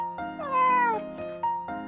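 A cat meows clearly several times in a row, with one long, rising and falling cry in the middle and shorter mews around it, fairly loud, with no talking; the cat is in a box found at the entrance of a villa (apartment building).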